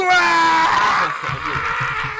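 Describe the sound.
A voice lets out a loud, strained scream of frustration for about a second, imitating an exasperated mother screaming alone in her room, then trails into a lower, quieter moaning tail.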